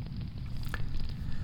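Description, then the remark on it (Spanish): A bonfire being lit crackles steadily, with scattered sharp pops and snaps over a low, rumbling roar of flames, moderately loud, with no voices. “Vamos a encender la, la hoguera para darle ahí al calor de la lumbre y vamos con ello.”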